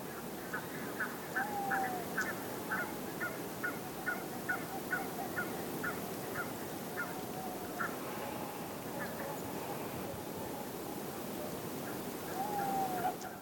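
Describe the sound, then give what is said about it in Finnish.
Faint, distant tawny owl hoots from kilometres away, carrying over water, a couple of low wavering calls at the start and end, over steady background noise and a series of rhythmic quack-like calls. “Ja mehän muuten saatiin tämä lehtopöllö talteen, niin Kuunnellaan vähän aikaa sen huhuilua.”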